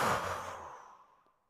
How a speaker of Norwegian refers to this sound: Vi puster godt inn, og så holder vi pusten. Og så puster vi ut.